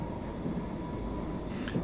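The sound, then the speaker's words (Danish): A steady low rumble of a train running, heard from inside a quiet carriage full of people, with faint rattles and a brief high squeak near the end; no one is talking. “Jeg kan nærmest ikke høre andet end toget.”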